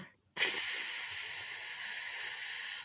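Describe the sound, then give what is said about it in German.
After a brief silence, a voice imitates air escaping from a slashed car tire: one loud, steady hiss that starts abruptly and holds evenly for over two seconds. “und habe damit unseren Reifen aufgeschlitzt”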